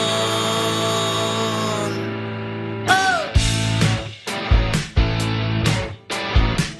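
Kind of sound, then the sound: signal or alarm, phone alarm clock ringing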